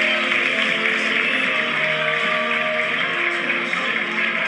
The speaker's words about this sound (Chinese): 谢谢你们陪伴我们，也希望全场给你们自己掌声鼓励。